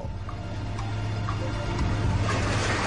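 A steady, loud industrial rumble of giant mine trucks dumping freshly cut rock into the jaw of a crusher, with a deep engine drone, grinding noise and faint rhythmic ticking, growing slightly louder toward the end. No one speaks.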